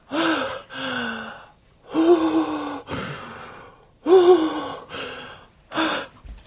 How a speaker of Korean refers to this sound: 자, 들숨. 들숨. 날숨. 자, 천천히. 자, 5초만 더.